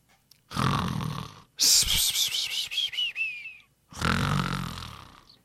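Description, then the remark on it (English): A voice imitates exaggerated snoring, loud: a rumbling, raspy inhale, then a long wavering whistle on the exhale, followed by another gravelly snore. “Let's go to sleep and continue in the morning.”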